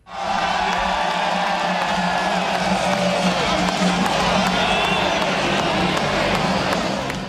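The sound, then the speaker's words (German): A large crowd of spectators at a Swiss ski World Cup race, such as at the Kunisbergli in Adelboden or the Lauberhorn, cheers loudly and continuously, a dense roar of shouts and whoops with clapping mixed in, holding steady throughout. “Die Skiweltcuprennen am Kunisbergli Adelboden und Zwängen am Lauberhorn ziehen jedes Jahr Zehntausende Zuschauer an.”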